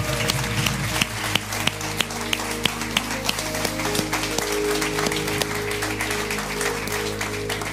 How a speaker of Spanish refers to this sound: Dale un fuerte aplauso.